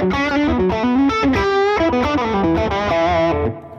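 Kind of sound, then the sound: sound effect, guitar through overdrive pedal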